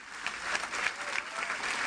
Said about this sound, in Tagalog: Yung palakpak na yan, hindi sa akin yan. Para yan sa Panginoon.